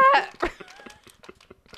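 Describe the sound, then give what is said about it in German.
A brief strained vocal sound, then a plastic bag of Birdiebots Bohnen candy beans crinkles and rustles in short, irregular crackling bursts as it is tugged and torn open. “Krieg die Tüte nicht auf!”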